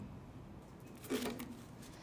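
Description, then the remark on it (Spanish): A card is drawn at random from a deck: a brief, soft papery slide and rustle lasting about half a second, quiet, with no talking. “nos va a sacar una tarjeta al azar.”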